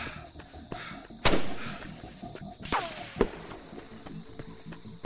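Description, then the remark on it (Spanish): A sharp gunshot cracks out, followed moments later by a second shot with a brief descending whistle of the bullet and a thud as it strikes a tree trunk, all over a low background hiss with no talking. “Otro disparo largó su estruendo.”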